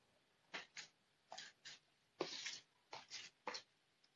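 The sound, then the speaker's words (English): A deck of cards being shuffled: a quick series of crisp, papery riffling bursts, some short and one longer, with brief pauses in between and no voices. “Shuffling, shuffling some cards.”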